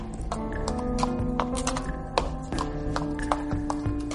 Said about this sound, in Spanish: Se escucha claramente cómo el caballo está dando vueltas y vueltas alrededor de la casa